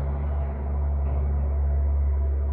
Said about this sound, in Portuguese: Menino, que diabo de motor é esse desse caminhão? Vale meu Deus.